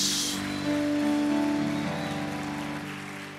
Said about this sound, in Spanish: Aplaude el nombre de Jehová Dios. Y aplaude el nombre de Jesús.